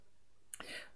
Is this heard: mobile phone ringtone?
no